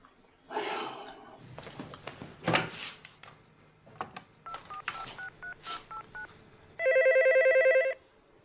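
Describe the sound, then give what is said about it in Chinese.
A telephone rings with one loud burst of rapid electronic trilling near the end, after a stretch of clattering and a few short beeping tones. “你看你给我打电话，完你问我是谁？”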